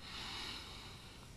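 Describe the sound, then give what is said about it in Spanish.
A single deep, forceful inhale, loud, with a steady airy hiss lasting just over a second and no talking. “Bodhidharma lo miró y le dijo, respiración profunda.”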